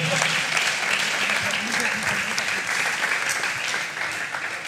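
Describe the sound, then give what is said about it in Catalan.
Steady, dense applause from a crowd welcoming a round-table panel guest from Sa Pobla, many hands clapping continuously at an even loudness for several seconds, with a faint murmur of voices underneath. “Des de Sa, Pobla, bé, esperem l'aplaudiment. Merescut, merescut.”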